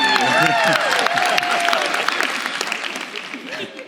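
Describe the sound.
A crowd applauds the speaker's wife with dense, steady clapping, and a few voices whoop and cheer over it. The applause stays loud and gradually thins toward the end.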